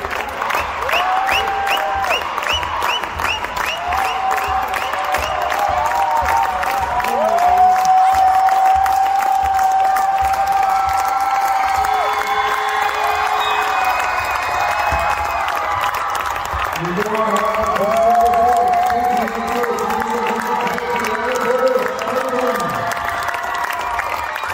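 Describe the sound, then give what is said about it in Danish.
A large crowd in a sports hall roars and cheers continuously, celebrating a women's team winning a championship, with dense applause, whistles and excited shouting, while a monotone voice speaks over a loudspeaker beneath the din. “Øh, du er også sportsdirektør og nærmest alt mand for AKS Falcon øh, kvindehold, som der i går kunne fejre et mesterskab, der lød nogenlunde sådan her.”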